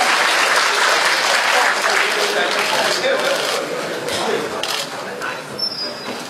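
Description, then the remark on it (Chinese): A crowd claps warmly and continuously, a dense, steady patter of many hands that holds strong for several seconds and eases only slightly toward the end: a round of applause thanking four guests at an event. “让大家再次热烈的掌声，感谢他们的高手会场”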